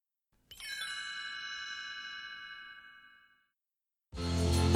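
A bright, bell-like chord rings out and slowly fades over about three seconds, then after a short silence a full band bursts in loudly, opening a song from a 1978 final. No one speaks.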